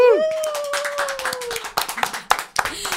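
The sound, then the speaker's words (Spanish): Audience applause welcoming two guests: dense, rapid clapping fills the whole clip at a steady, fairly loud level, with a sustained tonal whoop from the crowd over the first second and a half. “Señoras y señores, por favor, un fuerte aplauso para”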